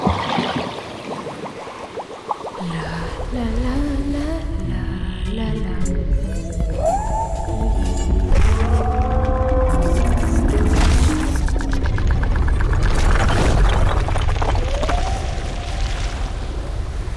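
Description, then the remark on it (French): A steady underwater propulsion rumble of an aquatic creature swells and churns for the whole stretch, laced with short squeaky whistles that glide up and down in pitch. No voices. “C'est une bestiole qui vit dans l'eau ou sur l'eau Un bruit de propulsion On dirait une pieuvre qui se déplace.”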